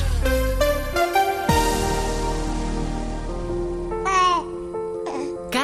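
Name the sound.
baby babbling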